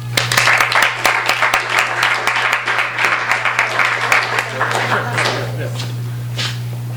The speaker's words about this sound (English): Let's please give a warm round of applause to our three readers.